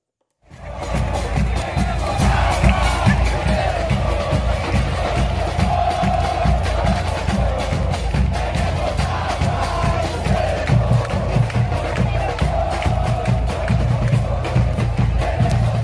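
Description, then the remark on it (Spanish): A large crowd of Santos football fans chants "Tenemos agua, ustedes no" in unison at Monterrey during a match, a loud, steady roar of massed voices with a rhythmic pulse that carries on throughout. “Tenemos agua, ustedes no. Eso es lo que le decía la porra de Santos a Monterrey.”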